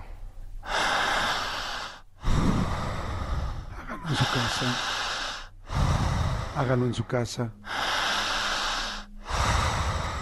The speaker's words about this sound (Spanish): Más fuerte y más intensa. Sin miedo. Sin temor. Jalando el aire.